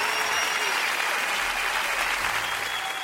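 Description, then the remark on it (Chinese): An audience claps steadily, a dense wash of many hands filling the whole stretch at an even, fairly loud level without pauses or voices standing out. “真的值得我们鼓掌啊！”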